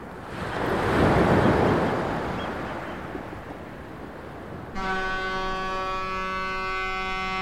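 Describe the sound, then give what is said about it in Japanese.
Ocean waves wash onto the shore in a soft, rushing surge that swells and slowly recedes; midway a steady, sustained tonal chord enters and holds over the continuing wash. No voices. “海沿いを散策してたらほらあらこんな貝殻久しぶりに見つけました”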